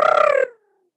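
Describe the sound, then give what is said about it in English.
A voice imitates the sound of a time turner turning time back: a brief, rapidly warbling hum, fairly loud, that cuts off after half a second and trails into a thin descending fade. “turned the time turner back um and that was the sound of the time turner”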